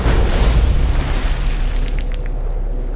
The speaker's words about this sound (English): Meanwhile, Superman tumbles downward, dropping like dead weight toward the water. Moments later, he crashes into the river with a tremendous splash.